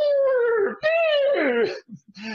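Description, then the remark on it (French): A person imitates a horse's whinny with a loud, high, wavering voice that slides downward in a few quick bursts, ending with short breathy sputters. “Ma belle imitation du cheval.”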